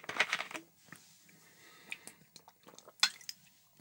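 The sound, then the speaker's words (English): Someone gets a drink of water: a few sharp clinks and knocks of a glass or bottle being handled, with soft sips and rustling in between, and no talking. “let me get some water because I'm so baffled.”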